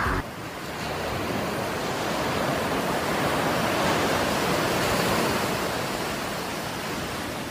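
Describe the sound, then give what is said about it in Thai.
Steady ocean surf washes onto a white sand beach with clear sea water, a broad continuous roar of breaking waves that swells gently and stays fairly loud throughout, with no voices. “หาดทรายขาว น้ำทะเลใส เริ่มต้นได้ด้วยมือเรา”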